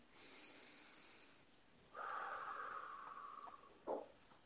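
A slow deep breath: a soft, airy inhale of about a second, a pause, then a longer, lower whooshing exhale ending in a brief puff. No talking.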